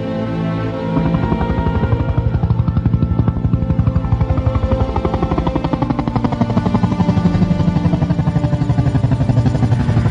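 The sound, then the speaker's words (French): A helicopter approaches, its rotor thumping in a rapid, steady chop, loud with a deep engine roar beneath, holding strong for several seconds after a brief quieter start. No one speaks. “Hélicoptère en approche, mon lieutenant.”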